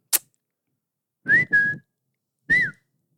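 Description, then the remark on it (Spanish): After a brief click, a man whistles three short, breathy notes: two quick ones back to back, then a third after a short pause. No one speaks. “ante el chiflido que acababa de echar este güey, los ve de reojo por el rabillo del ojo y sigue caminando.”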